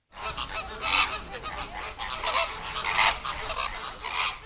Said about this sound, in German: Flamingos. Ja, haben wir vorher ja schon drüber gesprochen. Klingt ein bisschen ähnlich wie Affen, ist mir gerade aufgefallen. Wie die Affen fast. Aber gut, klar, es waren Flamingos.